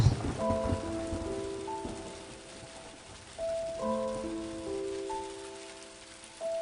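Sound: rain falling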